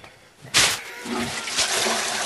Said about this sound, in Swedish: Spolar.